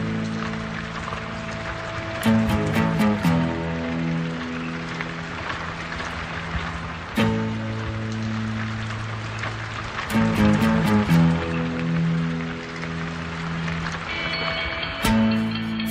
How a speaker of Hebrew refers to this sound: היא בביצה, כמו שאתם שומעים. יורד גשם. רק אצלה.